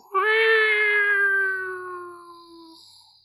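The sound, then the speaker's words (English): A single long, drawn-out cat yowl, loud and tonal, that slowly fades away over a few seconds with a lingering, echoing tail; no one speaks. “he looks back at the cat and it's so close and it's going and fades from existence. But the echo”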